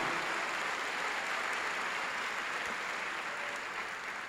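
A church audience applauds steadily during a sermon, a dense wash of many hands clapping at an even, sustained volume for the whole stretch, with no voices breaking through.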